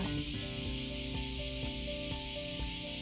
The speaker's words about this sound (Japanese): すごいですねもうセミが一斉に鳴き始めました今日はちょっと朝早くから、えー、家族を駅まで送っていったのでちょっと駅近くの公園からお送りします